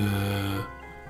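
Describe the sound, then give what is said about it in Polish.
A voice imitates the calm breathing of someone on a couch on the edge of snoring: one low, buzzy, droning exhale lasting about half a second, fairly loud, then trailing off into quiet. “Od już dłuższego czasu słyszysz e, spokojny oddech na kanapie. Taki tak na granicy chrapanka.”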